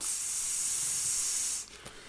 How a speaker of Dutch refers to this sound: En dan kwam hij in de studio en dan kwam er alleen maar gesis uit het apparaat. er was er weer iets mis.